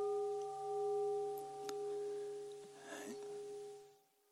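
A meditation bell rings out with a long, steady shimmering tone that lingers and slowly fades, heard on its own without any talking, with a few faint soft rustles in the background.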